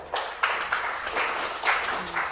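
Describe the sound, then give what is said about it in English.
A crowd breaks into sustained applause for the Lord, many hands clapping in a dense, steady wash with a few louder bursts rising and falling, filling the space without any talking over it. “Give the Lord a hand clap.”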